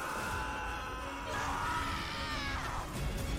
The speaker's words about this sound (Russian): Как же они любят кричать.